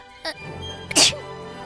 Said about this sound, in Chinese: 我打喷嚏也没有手可以来捂住自己的嘴巴呀。这样可真的不太妙啊！